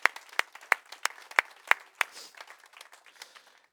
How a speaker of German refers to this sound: Und äh, lass uns diese Menschen bitte willkommen heißen mit einem kraftvollen Applaus heute Morgen.